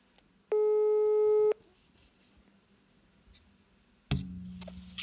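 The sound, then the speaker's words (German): A single long telephone ringback tone sounds for about a second while a phone call is being placed, steady and fairly loud, followed by quiet line noise and then a brief electronic click and hum. “Wir rufen sie jetzt einfach mal an.”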